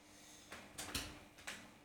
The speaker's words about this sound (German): Achso, wie es knarzt und alles, ne?